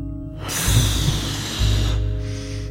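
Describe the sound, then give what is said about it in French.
A loud breath as Ballon Neuf takes a big, noisy, rushing inhale through the nose, then a softer exhale through the mouth that fades out. No one speaks. “Ballon Neuf prit alors une grande inspiration sonore par le nez.”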